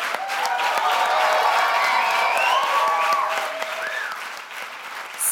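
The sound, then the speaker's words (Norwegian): A crowd at the KrF (Christian Democratic Party) national congress in Trondheim applauds steadily with scattered cheers and whistles rising over the clapping, loud and sustained, easing slightly near the end before swelling again, cheering Kjell Ingolf Ropstad, proposed as second deputy leader. “Stor jubel for KrFs nye kronprins der.”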